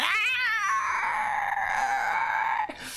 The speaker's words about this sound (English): As she flicks it at the creature, three scorching rays burst out, two of them hitting the ground and the other one hitting the creature on the eye stalks as it shrieks.